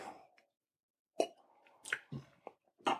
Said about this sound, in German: Noch den letzten Schluck vom Rotwein aus meinem Glas nehmen. Ein Cuvée aus Franken vom Weingut Stefan Sauer.